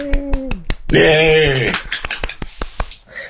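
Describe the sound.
Sharp, scattered hand claps ring out irregularly for a few seconds, joined briefly by a loud sung or shouted voice near the start, then continuing as sparse, crisp claps.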